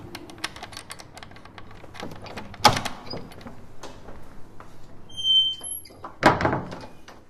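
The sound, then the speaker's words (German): A key rattles and clicks in the front door lock of a home, followed by a solid thunk, a thin high squeak, and a second heavy thud as the door swings open. No one speaks. “Schlüssel in Haustür.”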